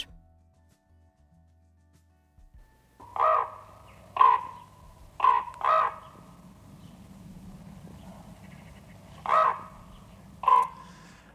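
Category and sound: bird, raven calling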